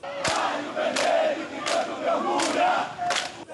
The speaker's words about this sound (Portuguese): As imagens mostram um pelotão de aproximadamente 50 militares marchando, dançando e gritando palavras de ordem.